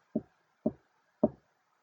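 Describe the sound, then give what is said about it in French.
Three hollow knocks on the wooden door of an old woman's house, made by a fox with its frozen paws, evenly spaced about half a second apart, each a short dull thud fading quickly into silence, with no voices. “Il frappe de ses pattes gelées et espère que quelqu'un lui ouvre.”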